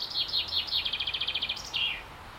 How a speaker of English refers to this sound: That's a chaffinch. So chaffinches are beautiful little birds, a beautiful colour, tiny little things, and they have the most wonderful call. And I used to hear it every morning, and normally in the day as well as a kid.